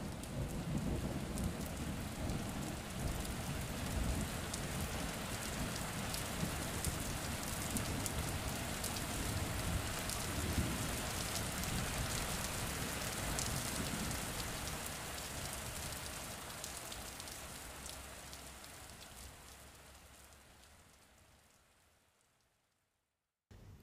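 A steady downpour from a short, intense rain shower hisses and patters with low rumbling underneath as the storm moves away, then gradually thins out and fades to silence near the end.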